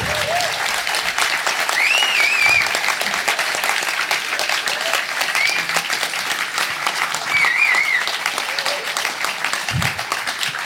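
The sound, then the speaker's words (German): Sustained audience applause at a poetry slam as the first slammer steps forward, a dense, steady wash of many hands clapping for about ten seconds, with a few scattered cheers and whistles rising above it. “Bitte vortreten und Applaus.”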